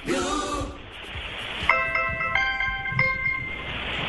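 A BlackBerry phone alarm clock tone plays a quick, bright melody of electronic beeping notes at moderate volume over a faint background hiss. A brief voice-like sound comes just before it.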